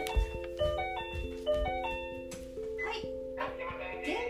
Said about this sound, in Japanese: あなんかピンポンが来ましたね。困りましたね。ちょっと待ちくださいね。